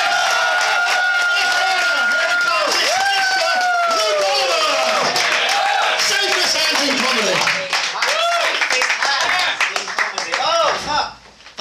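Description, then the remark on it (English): A loud crowd claps steadily and cheers, with whoops and shouted voices rising over dense, rapid applause that carries on for several seconds before thinning out at the end. “Just fucking clap your nuts off, right?”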